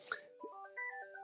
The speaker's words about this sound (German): Danke für diesen Beitrag und das Einspielen dieses äh, Klingeltons